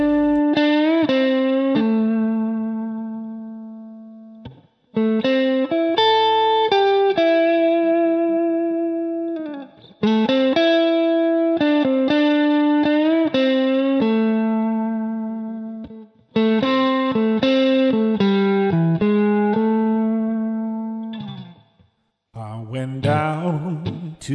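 A blues band plays a slow, loud instrumental passage of St. James Infirmary with long, sustained melodic notes carried on a distorted, effect-laden tone, phrased in held lines separated by brief pauses.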